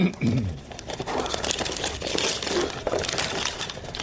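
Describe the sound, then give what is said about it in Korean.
Rainbow-coloured paper gift wrapping on a birthday present box is torn open, a steady run of crisp crinkling and ripping for about four seconds, fairly loud and continuous, with a brief low vocal sound near the start. “무지갯빛 종이로 포장된 그것을 보면서”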